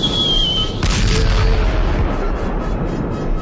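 A loud grenade explosion sound effect: a thin high whistle, then a sudden blast just under a second in, followed by a heavy, sustained low rumble that carries on to the end. No voices.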